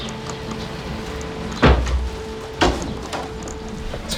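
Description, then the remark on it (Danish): Two dull knocks on a door, about a second apart, followed by a fainter third tap, against a steady low hum with no one speaking. “Pludselig banker det på døren.”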